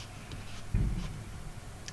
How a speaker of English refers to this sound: And that was some big explosion noise outside. That's pretty cool.